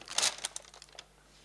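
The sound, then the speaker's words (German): A plastic bag crinkles and rustles as something is pushed into it, a loud burst of crumpling followed by a few softer crackles that fade out. “Ich stopfe dich hier rein.”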